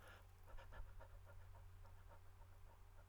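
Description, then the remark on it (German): A person pants in short, quick but deep breaths with the mouth open and tongue hanging loosely out, about a dozen in steady rhythmic succession, like a dog panting, as a breathing exercise; quiet, with no talking. “Öffne deinen Mund, lass die Zunge locker ein bisschen heraushängen und atme kurz, aber tief.”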